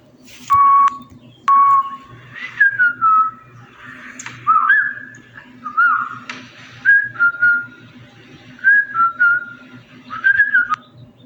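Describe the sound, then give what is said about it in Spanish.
A person whistles a wandering, melodic tune in a series of short phrases, the notes sliding up and down, clear over a low steady background hum. “Hubo murmullos, risas, rasquidos e incluso algunos silbidos.”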